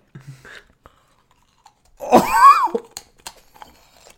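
Someone chewing and crunching food, with a few sharp, scattered crunches and a brief strained vocal groan in the middle, mostly moderate in loudness.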